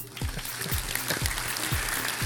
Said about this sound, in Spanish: Así que vamos a unos aplausos. Espérate, vamos a unos aplausos.